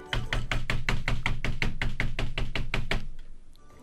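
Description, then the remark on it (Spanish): A rapid, steady run of about sixteen loud knocks on a door, evenly spaced for roughly three seconds, then silence with a faint lingering tail. No one speaks. “Y fui caminando y toqué la puerta y dije...”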